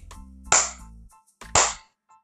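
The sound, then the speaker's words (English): Two sharp hand claps spaced about a second apart, each a loud, bright smack with a quick decay, like the start of a slow clap. “Slow clap on that, slow clap, or fast clap, either one, either one.”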